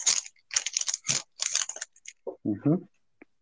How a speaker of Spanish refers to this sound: ¿Quién está comiendo algo que hace tanto ruido?